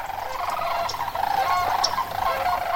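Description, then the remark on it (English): A dense chorus of rolling, trumpeting sandhill crane calls from many birds at once at Okefenokee in winter, as northern flocks of migratory cranes join resident ones. The calls are continuous and moderately loud, overlapping in a steady clamor with no voices present. “each winter, northern flocks of migratory sandhill cranes descend into the area to join their cousins”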